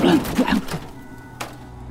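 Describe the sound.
A voice imitates a box falling with a short, low, thudding vocal burst, then a brief quiet knock follows after a pause, fairly loud at first.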